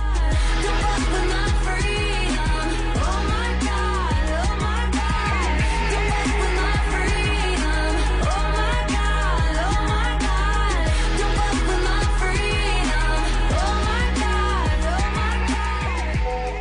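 A loud, full pop song plays on the radio show Bla Bla Bla with a steady driving beat, punchy bass and layered synths, with a sung vocal line over the top and no talking.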